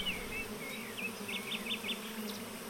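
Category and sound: insect, honeybees buzzing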